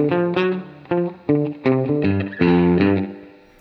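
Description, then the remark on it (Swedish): A few electric guitar chords and notes played through a tape echo set to its shortest delay (first head, original setting), so each strum sounds thickened and doubled rather than repeated, like doubling rather than slapback. Moderately loud, with no talking. “Det blir nästan inte slapback utan det blir nästan som ett dubblings.”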